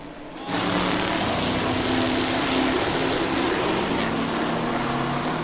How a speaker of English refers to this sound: Pace truck makes that left turn down in behind the pit wall. Those engines come back to life, and here we go. Back to green flag racing.